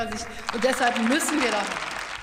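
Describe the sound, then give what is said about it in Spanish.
The German Bundestag breaks into steady, dense applause, a continuous crackling wash of many hands clapping, while a voice speaks over it throughout. “Y le aplaude eh, todo el, el Bundestag.”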